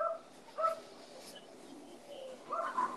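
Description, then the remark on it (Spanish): Dogs at the house next door bark in a few short, scattered bursts, fairly faint and muffled, with quiet background noise in between and no one talking. “Sorry por los perros, mano. Es que aquí, la casa al lado. Hay unos perros que están activos 24-7 aquí.”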